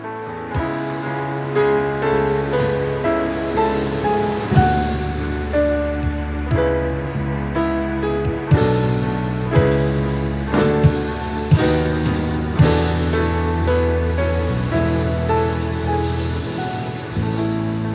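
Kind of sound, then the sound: crowd, audience applauding loudly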